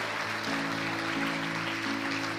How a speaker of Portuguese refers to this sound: Aplauda a verdade nessa manhã.